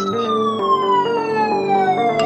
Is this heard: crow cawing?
no